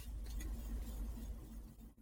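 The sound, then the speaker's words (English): Steady outdoor traffic ambience in a Walmart parking lot: a continuous low engine rumble with a faint humming tone, fairly loud and unchanging, with no one speaking. “I'm in the middle of Walmart parking lot doing this.”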